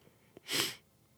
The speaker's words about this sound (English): don't sneeze. Don't fucking sneeze.